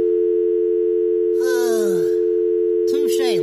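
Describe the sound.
A steady, loud electronic voicemail beep tone drones unbroken from start to finish, while brief bursts of voice with swooping pitch break in twice over it.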